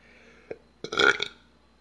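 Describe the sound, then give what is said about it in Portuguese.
A single loud burp lasting about half a second, preceded by a brief click or catch in the throat, with quiet background before and after. “Desculpa por ter arrotado, me desculpa mesmo.”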